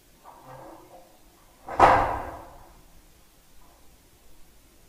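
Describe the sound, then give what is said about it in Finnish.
A loose metal sheet clangs once in the wind, a sudden loud bang that rings and fades over about a second, with faint rustling before and after. “nyt se kolina kuuluu uudestaan, aika aavemaista, kun pellit kolisee tuulessa eikä oikein tiedä mistä se tulee.”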